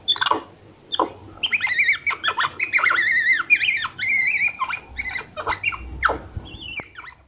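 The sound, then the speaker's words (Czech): A rapid series of high, squeaky chirps and whistling calls from a Central American capuchin monkey, continuous, with wavering pitch and short clicks between them, no talking. “Možná si říkáte, proč tady pouštíme pískot té středoamerické ploskonosé opice Malpy Kapucínské, kterou často využívali evropští flašinetáři a která své jméno kapucínská získala podle světlého nákrčníku i hlavy na jinak tmavém těle”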